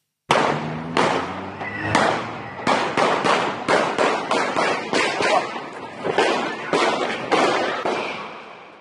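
A rapid burst of pistol gunshots from a man firing a pistol in a McDonald's restaurant, at least 18 sharp, loud cracks fired in quick succession with brief uneven pauses, each shot ringing out into a reverberant space.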